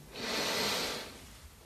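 human body sound, deep inhaling breath

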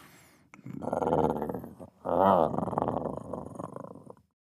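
human body sound, stomach rumbling

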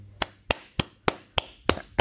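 human body sound, single person clapping hands

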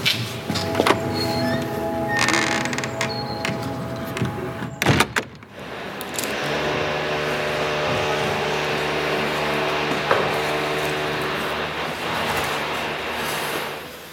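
household object, door swinging shut

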